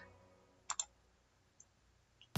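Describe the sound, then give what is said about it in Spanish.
A computer mouse clicks twice in quick succession, crisp, against a faint low hum, as Next is clicked in a software installation program; a louder abrupt click-like burst cuts in right at the end. No one speaks. “Bien, entonces lo dejamos ahí en In a New Program Group y damos clic en Next.”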